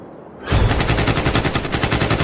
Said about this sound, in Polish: W tym momencie, jak na potwierdzenie jego słów, usłyszeliśmy serię strzałów. Dochodziły niemalże z każdej strony.